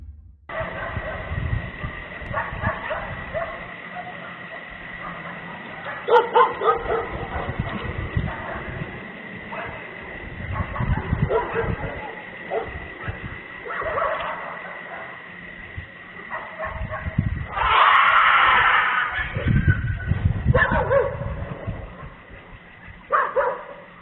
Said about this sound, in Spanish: Pues acá como agresivo, ¿no? Para escuchar perros y luego el grito.